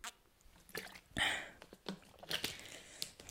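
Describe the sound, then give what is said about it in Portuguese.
Someone drinks water: a few quiet, wet sips and gulps with small mouth clicks and swallowing sounds, spaced irregularly over a few seconds, with no talking. “Uma pessoa de vez em quando precisa beber água, né? E eu ainda só bi isto hoje.”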